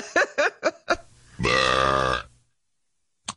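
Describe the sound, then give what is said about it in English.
A few short, choppy vocal bursts lead into one long, loud, croaking burp that rumbles for nearly a second, followed by quiet. “oh, oh God, I'm, I'm erupting.”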